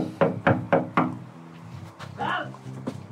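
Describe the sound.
Four firm, evenly spaced knocks on the door of a small house on a quiet residential street on a slightly windy day, followed by a muffled voice calling from inside.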